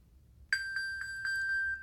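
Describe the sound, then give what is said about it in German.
A loud, steady electronic pinging alert from a smartphone lying on a table, set off by a find-my-phone ping, starts abruptly and repeats in quick, even pulses, a bright sustained tone with rhythmic chirps riding on it, with no voices. “Und dann habe ich es auch schon manchmal angepingt. Und dann ist es aber furchtbar laut.”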